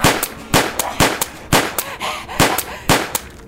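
Six sharp pistol shots crack out in quick, slightly uneven succession, loud, each followed by a brief echoing tail and some fainter rattling in between; a pistol is fired at a person's head.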